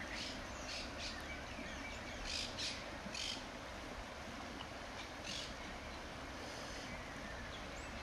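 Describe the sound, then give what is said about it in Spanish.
A steady, dense rush of river water flows throughout, with a few short, bright bird calls cutting through now and then. “El ah, agua, el río, güey. pues pájaros.”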